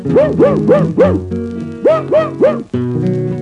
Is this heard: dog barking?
yes